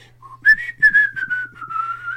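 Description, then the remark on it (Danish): A man whistles a short, wavering tune while walking behind someone, the pitch sliding gently downward over about two seconds, with a faint low hum underneath and no talking. “og fløjter.”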